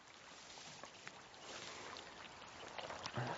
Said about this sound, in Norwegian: Nå går bekken her, og ikke, det er ikke bare det at det skal se fint ut